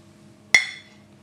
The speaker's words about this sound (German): ich proste dir erstmal zu. Prost, liebe Jenny.